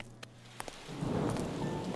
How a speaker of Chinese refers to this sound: 提起背包，拿起车钥匙，毅然走进了滂沱大雨中。